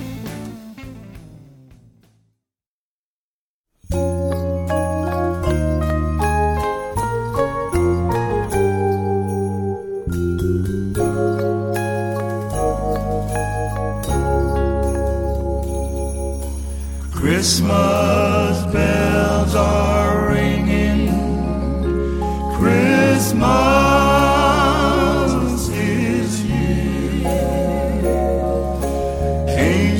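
A gospel quartet song with Christmas bells begins after a few seconds of silence, with steady harmonized voices and chiming tones, then swells into a fuller, brighter passage partway through.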